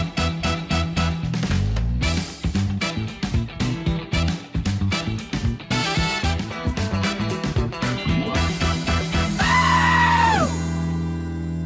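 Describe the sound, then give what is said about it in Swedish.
A goat bleats loudly and repeatedly over a busy, rhythmic musical backing, ending with one long, wavering bleat before the sound fades. “då, då, då vet geten att nu jävlar, nu blir det åka av.”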